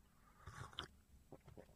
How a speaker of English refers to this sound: Oh, good slurp on a Sunday morning for a cup of tea.